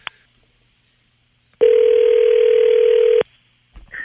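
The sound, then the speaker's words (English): A short click, then a single loud, steady telephone tone lasting about a second and a half before cutting off, followed by a faint rustle as the line seems to pick up, as radio hosts phone a guest live on air. “Let's see if we can get him on the phone.”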